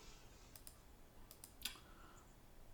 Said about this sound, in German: ich klicke hier zu viel rum.